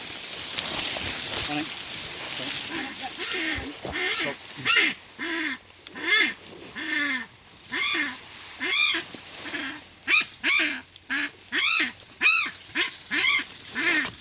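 A kākāpō named Wolf skraaks again and again in disapproval at being caught, loud: a rapid series of harsh, nasal, honking squawks that follows a few seconds of rustling as people crash through thick bush.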